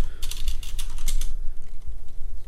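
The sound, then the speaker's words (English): A quick burst of typing on a computer keyboard while searching online for how to pronounce the word "herbs", with a rapid run of crisp clicks that trails off after about a second into quieter background noise. “I'm searching it right now.”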